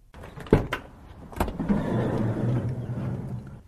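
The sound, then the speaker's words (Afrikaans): A Ford Tourneo Custom Limited minibus's sliding door clunks open with a couple of sharp latch clicks, then rolls along its track with a sustained mechanical whirr, fairly loud, with no talking. “Twee skuifdeure op hierdie Ford en binne 'n reuse kajuit.”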